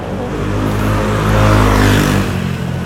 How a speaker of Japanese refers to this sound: ちょっと待って今ねバイクがうるさかったんで